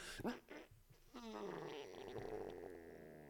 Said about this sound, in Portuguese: É isto, ouviram isto? É tipo isto, foi isto, só que aquele barulho foi crazy de parecido, mas é tipo, é um uh, libertar ar, tá, ar preso de boca pós espreguício. Que parece que é quase intestinos e tipo. Mas claro que não é.